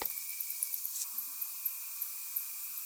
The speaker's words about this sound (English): That sound is the microbats looking for food. Yeah, they use sound to find insects to catch and eat. Using sound to find things is called echolocation.